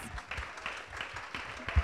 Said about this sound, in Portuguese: Palmas para a